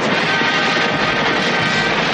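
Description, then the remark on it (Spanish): A helicopter hovers a few metres above the water as soldiers jump from it into the water; its steady, loud roar mixed with a broad rushing wash like churned water, continuous throughout with no voices. “El soldado asiente y todos empiezan a lanzarse al agua desde el helicóptero, que la sobrevuela a pocos metros.”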